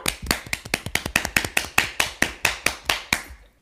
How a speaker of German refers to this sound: Erstmal einen kurzen Applaus dafür, ja.